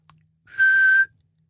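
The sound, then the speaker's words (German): A child whistles one short, steady, breathy note that holds a single pitch for about half a second. It is fairly loud, with no talking around it. “Püb ist das Pfeifen eines Kindes,”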